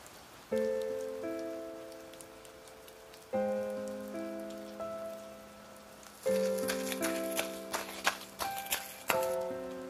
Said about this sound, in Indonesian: Tapi kenapa lagi-lagi aku ketemu sama hujan?